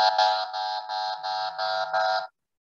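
A harsh buzzer horn blares in a quick run of about seven pulsing bursts, loud, then cuts off abruptly. No voices are heard.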